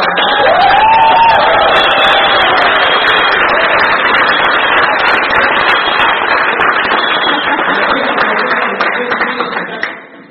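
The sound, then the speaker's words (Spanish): A crowd bursts into loud, sustained applause for God, with cheers and whoops, a steady dense roar of clapping that holds for about ten seconds before tapering off at the end. “Un aplauso a Dios.”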